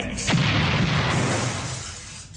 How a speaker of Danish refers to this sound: Okay, mm. jeg får øh, totalt meget lyst til at se øh, Powerpuff nu. ja, uh, eksplosion lige her til sidst.